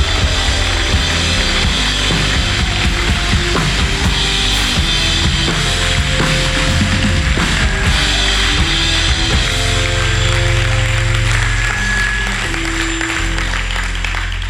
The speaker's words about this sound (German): Und äh, gemeinsam wollen wir es einmal tun mit einem riesen Applaus der Wertschätzung und der Achtung und der Ehre für euch.